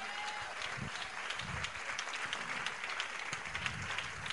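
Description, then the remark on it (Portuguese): A church audience applauds the Lord Jesus during an altar call, a dense wash of many hands clapping at an even level for several seconds, with no talk over it. “A igreja aplauda o Senhor Jesus nesse momento.”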